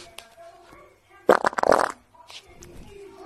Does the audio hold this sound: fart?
yes